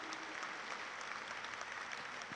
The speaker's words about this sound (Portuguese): Pode dar uma salva de palmas forte para Jesus.